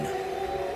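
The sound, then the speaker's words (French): A train horn blares in one steady, sustained chord, loud and unbroken for its short duration, with no voices over it. “S'il vous plaît Oh, c'est le train.”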